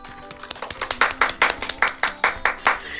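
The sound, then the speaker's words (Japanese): Hands clap in a quick, steady rhythm, around a dozen crisp claps in a row, growing slightly louder after the first second, with no talking over them; applause given as praise. “本当に強い意志を持って神戸牛と戦ったわけです俺は食わんぞそれに見事打ち勝った方にですね拍手を送りたいなと”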